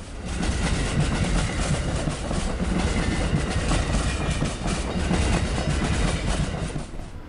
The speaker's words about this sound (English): The train is currently cautiously going over a junction where we meet another set of tracks.